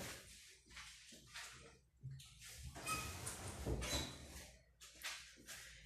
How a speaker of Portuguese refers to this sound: E eu derramei água no chão.